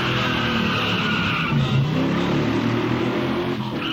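A muscle car accelerates hard, its engine roaring steadily loud as it shifts from first into second gear and the rear wheels hop and chatter, with no voices.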